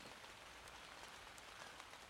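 heavy rain pouring outside

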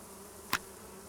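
bee buzzing

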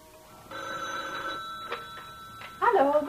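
telephone bell ringing

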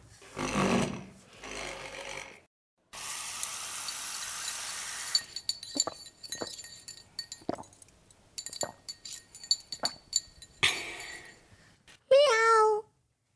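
cat meowing

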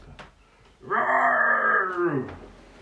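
bear roaring and growling

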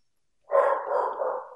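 dogs barking

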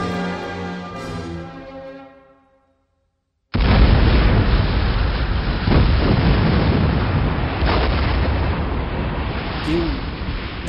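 explosion

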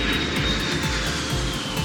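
airplane taking off

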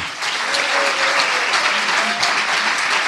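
audience applauding

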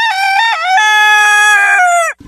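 rooster crowing sound effect

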